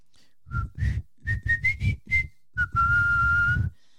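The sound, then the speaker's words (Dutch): A short whistled family tune of several quick notes, then one long sustained note, clear with no talking. “En ik vond het wel herkenbaar wat hij vertelde: dat hij zo'n eh, deuntje fluit. En dat iedereen dan weet: oh, dat is het familiedeuntje.”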